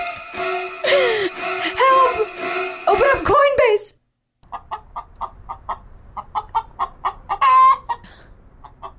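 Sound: chickens clucking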